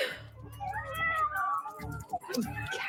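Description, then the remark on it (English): A cat meows in cat videos being played, a string of drawn-out, wavering cries, one running into the next, fairly loud, with a low hum underneath. “Launch countermeasures. Cat videos.”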